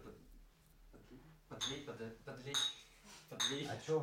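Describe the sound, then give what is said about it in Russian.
Glasses clink together in a toast, three bright ringing taps spaced about a second apart, over people talking and murmuring. “Давайте чокнемся Давайте. еще раз.”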